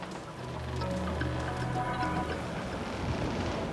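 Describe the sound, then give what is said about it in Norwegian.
A steady, rushing roar of storm rain and rough sea with white foam caps on the waves, broad and continuous throughout, with a low droning rumble underneath and no voices. “Nå blir det uvær! Ja. Det er allerede hvite skumtopper på bølgene.”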